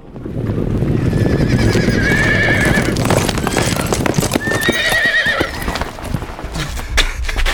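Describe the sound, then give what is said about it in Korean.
A loud mass of Later Jin cavalry horses gallops toward Yonggol mountain fortress to besiege it, with dense, rapid hoofbeats, while horses whinny in two drawn-out neighs, one early and one midway, over the constant rumbling clatter. “지금 후금의 기병들이 몰려와서 성을 포위하고 있습니다.”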